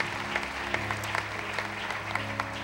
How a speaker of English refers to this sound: Would you clap your hands as you're seated and let's praise the Lord?